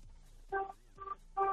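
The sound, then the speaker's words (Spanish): A car horn honks three times in quick succession in a listener's car, each blast a steady, bright harmonic tone, the last one slightly longer, with a faint low hum underneath. The horn is sounded to show the driver is listening to the radio station XFM. “me pide mi productor que toques el claxon tres veces para comprobar que vas escuchando XFM en tu auto.”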